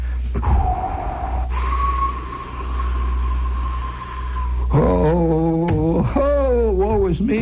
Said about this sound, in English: You know, wind is picking up and the wind is howling maybe 45, 50 miles an hour, not in gusts, but in a steady icicle stream. It's like it's like it's made of a million ice picks.